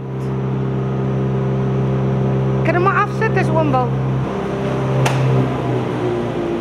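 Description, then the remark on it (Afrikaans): Dust extraction fans that suck up dust roar steadily at high speed, a loud continuous whooshing drone with a humming tone that never lets up, while a man speaks briefly over the noise. “Ek sê die fans wat die wat die stof uitsuig, mm. hardloop op hoë spoed en en dit dit maak eintlik 'n geraasfaktor.”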